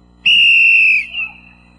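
A football referee's whistle gives a single loud, shrill blast held for most of a second, then tapers off with a softer trailing tone, with no talking.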